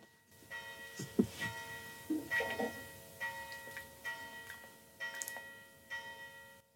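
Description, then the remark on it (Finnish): Large bells strike twelve o'clock noon, tolling steadily about once a second with long, ringing overtones that overlap, over faint outdoor background noise. “kellot soivat. Kyllä, kello on 12, ei sen kummempaa.”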